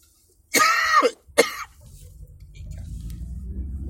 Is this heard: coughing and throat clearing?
yes